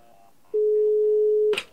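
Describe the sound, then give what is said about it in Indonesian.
A single steady, low-pitched telephone ringback tone sounds loudly for about one second on an outgoing call, then cuts off with a brief rustling click. No one speaks. “ya udah yuk kita langsung telepon aja nih”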